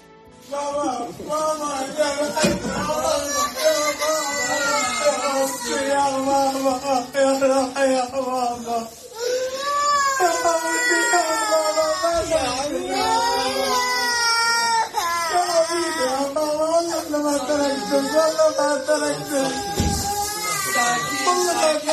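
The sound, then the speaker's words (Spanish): A little girl of just over two years cries and sobs loudly while her father's anguished, wailing voice laments alongside, their voices overlapping almost without pause, emotional throughout, as father and daughter are reunited after eight days apart following an earthquake. “La verdad que rompe el alma escuchar el lamento del padre y el llanto de la pequeña, de, poco más de dos años, que, que, han estado separados ocho largos días, con mucha incertidumbre además.”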